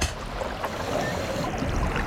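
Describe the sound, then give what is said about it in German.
A steady, murky rush of water like a diver slipping under the surface, with dense bubbling noise throughout and no voices, fairly loud for its whole length. “Dann leg deine Flossen an. Du tauchst ab.”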